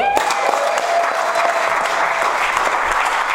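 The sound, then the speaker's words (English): Steady, dense applause from a sizable audience at a Sunday service at St. Paul's church, many hands clapping at once in a continuous wash of sound that holds at a constant loud level throughout. “I had to tell 845 to applaud.”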